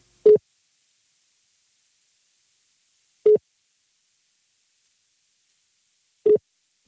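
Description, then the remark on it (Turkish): A telephone line beeps while a call goes through: three short, mid-pitched tones spaced about three seconds apart, with silence between them and no voices. “Ona göre tıt tıt geliyor.”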